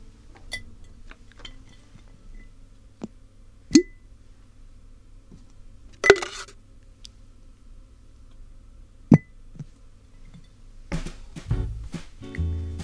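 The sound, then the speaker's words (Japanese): A few small objects drop into a glass jar one at a time, each landing with a sharp, bright clink a few seconds apart, followed by a short burst of rustling and clatter at the end. “今日集めた隙もガラス瓶に入れたいと思います”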